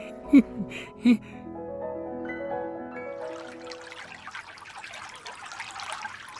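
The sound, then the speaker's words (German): River water splashes and trickles in a steady, bubbling stream for the last few seconds, after a couple of sharp knocks and some brief tonal sounds at the start. “was, was pritschelt denn da hier so?”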